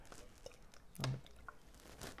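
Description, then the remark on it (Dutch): A quiet sip of a drink with soft wet mouth noises and a single gulping swallow around the middle, then faint lip smacks; no talking. “Ik neem even een slokje”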